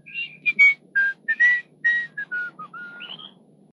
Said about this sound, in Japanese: And the father strode off, whistling a merry tune.